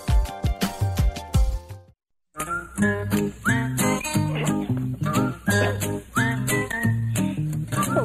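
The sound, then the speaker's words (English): A blues tune from Austin, Texas plays its last couple of seconds before cutting to a brief silence, then another busy instrumental passage starts up with plucked, rhythmic notes at moderate volume. “that uh, …. That's something uh, right out of, of Austin, Texas”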